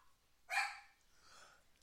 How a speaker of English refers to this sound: That you hear my dog? Yeah. That's my dog. Yeah, I hear him. She's going nuts.